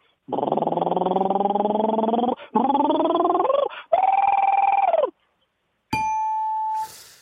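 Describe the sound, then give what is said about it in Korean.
A buzzy voice imitates a motorcycle engine's RPM being raised from start to finish, in three loud bursts, each climbing in pitch, followed by a brief high whine and a hiss. “오토바이 RPM을 처음부터 끝까지 네. 올리는 소리 한번 들어보겠습니다.”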